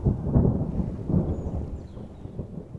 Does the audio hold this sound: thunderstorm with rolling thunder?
yes